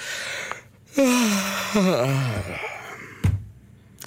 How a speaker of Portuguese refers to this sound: Vamos a um bocejo, vamos a um bocejo nacional. Eu vou fazer isto agora. Eu não tenho vontade nenhuma de bocejar, mas vamos lá.